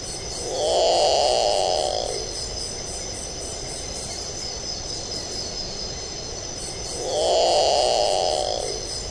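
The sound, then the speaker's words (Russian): A nocturnal predatory bird, which hunts small mammals such as gophers at night, gives two harsh, rasping screeches, each about a second and a half long and several seconds apart, over a steady, shrill chorus of crickets. No one speaks. “Вот, но ну, а звук, который она издает, действительно пугающий.”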